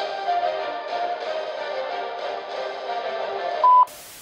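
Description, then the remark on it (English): An answering machine beep: one short, loud electronic tone cutting in after a steady droning hum, followed immediately by a burst of line hiss. “Please leave your name and message after the beep, and we shall return fire at our earliest convenience.”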